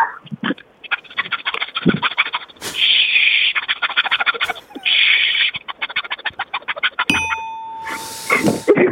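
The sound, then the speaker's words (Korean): A phone-in caller imitates opening a cola can with rapid mouth clicks and pops broken by sharp, fizzing hisses, then a clear ringing ding sounds, followed by one more burst of hiss. “어, 콜라 따는 거 콜라. 자, 콜, 콜라 한번 따보세요.”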